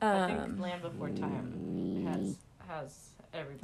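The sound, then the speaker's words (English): A small female puppy dog growls low and steadily for about a second, rumbling beneath a person who keeps talking over it; the growl is fairly soft. “That was our dog.”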